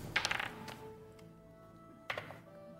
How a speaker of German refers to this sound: Gut, dann äh, für den nächsten Abschnitt äh, bitte noch einmal äh, würfeln.